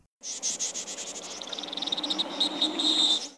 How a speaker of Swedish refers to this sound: Och sen så hör man sen när de planar ut ganska snabbt i dyket och sen så kastar de ur sig de här små, små kväkningarna som kommer ifrån fåglarna.